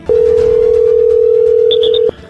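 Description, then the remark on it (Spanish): A loud, steady telephone dial tone hums for about two seconds, with a few quick higher beeps near the end as a number is dialed to place a phone call, then it cuts off. “Se está marcando, señoras y señores, en este momento.”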